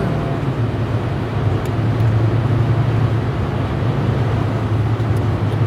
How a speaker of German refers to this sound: mal kurz gucken, dass ich hier noch den LKW überholt kriege.